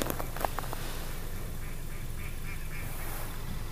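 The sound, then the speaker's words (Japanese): A few quick duck quacks sound at the start, before fading into a steady outdoor hum of low rumbling background noise, at a rime-ice viewing spot around sunrise. “響きますねカモの声カラスもねやっぱり何日の出とともにみんな動き出してる”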